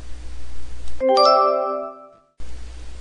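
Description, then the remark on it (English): A house doorbell chimes a clear two-tone ding-dong as neighbours from next door arrive, bright tones ringing out and slowly fading, with a soft background hum before and after and no talking. “No one makes cookies like Grandma, said Mom as the doorbell rang.”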